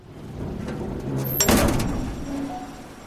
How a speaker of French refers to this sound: Les lourdes portes en métal se ferment dans un claquement assourdissant derrière Clyde Barrow.